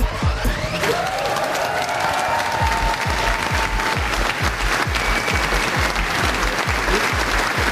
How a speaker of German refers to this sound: So tosend war der Applaus vergangenen Samstag nach der Premiere von dem Songdrama Ewig Jung im Landestheater Coburg.